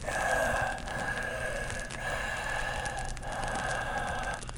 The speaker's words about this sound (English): He heard heavy breathing.